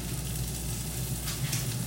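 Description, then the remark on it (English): Potatoes sizzle steadily in a hot pan after a little water is added to steam them, a continuous crackling hiss over a low rumble, briefly flaring brighter and louder toward the end. No one speaks. “add a little bit of water. So I'm gonna get some water. You hear that?”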